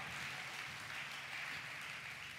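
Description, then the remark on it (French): An audience bursts into steady, sustained applause for the love of God during a sermon, dense crackling clapping from many hands at an even loudness throughout, with no voices breaking through. “Un applaudit pour l'amour ça.”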